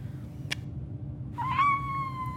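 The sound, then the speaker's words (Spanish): A short click, then one drawn-out, high-pitched cartoon kitten meow from the Tugatita.com website app, a kitten that repeats what you say in a high voice, sliding up and then holding steady over a low background hum, with no one talking. “Ay, sí, es ese gatito que repite lo que decís pero agudo.”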